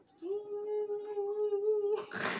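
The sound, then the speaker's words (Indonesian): A voice imitates a kue putu cart's steam whistle, holding one steady, piercing tone for nearly two seconds before breaking into a short breathy, hissing burst, fairly loud. “ibarat tuh udah kayak jadi sirine Enggak, itu gua cosplay bunyinya.”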